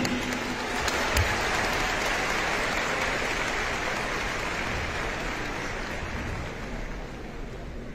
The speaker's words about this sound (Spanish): Un aplauso para estos jóvenes que dijeron que sí.